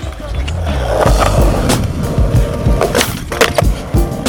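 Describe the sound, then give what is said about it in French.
Skateboard wheels rumble steadily over pavement, broken by several sharp wooden clacks and slaps from tricks and landings, loud with a faint murmur of voices behind. “Le skateboard, c'est un sport qui a été créé dans les années 50, mais qui n'a intégré les JO que depuis 2021.”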